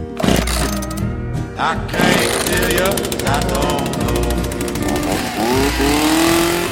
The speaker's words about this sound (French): Sauf qu'ici, il ne s'agit pas d'un fusil d'assaut évidemment, mais d'une tronçonneuse. Alors, c'est beaucoup moins propre, mais c'est beaucoup plus fun.